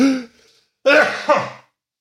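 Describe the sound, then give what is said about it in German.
A sneeze: a short breathy burst, a brief pause, then a louder, longer voiced explosion with a second pulse near its end, fading out. No talking. “Also ich muss noch mal niesen.”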